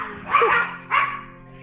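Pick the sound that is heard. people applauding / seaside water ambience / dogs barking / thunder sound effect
dogs barking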